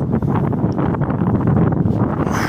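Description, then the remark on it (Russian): Heavy wind buffets the microphone in a steady, loud low rumble with gusty fluctuations throughout, masking other sounds; no speech is audible. “ветер сильный какой, не знаю, будет там слышно”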